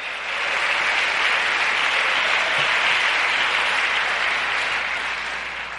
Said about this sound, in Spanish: Le da un aplauso fuerte al Señor, aleluya.